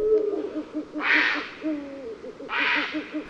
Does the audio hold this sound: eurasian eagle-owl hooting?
yes